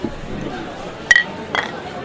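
Two quick glass clinks, a short bright ring followed by a softer second tap half a second later, as drinking glasses touch in a toast over faint background chatter.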